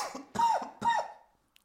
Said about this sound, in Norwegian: Du, har hatt korona, så hvis lyttere lurer på hvorfor han hoster og harker, så er det dette covid-syndromet som har spilt han et lite pust den siste uken.